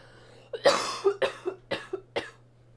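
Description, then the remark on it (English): A loud, breathy sneeze bursts out, followed by a quick series of five or six shorter, sharp expulsions in an uneven rhythm, with no talking around them. “Bless you. Thank you.”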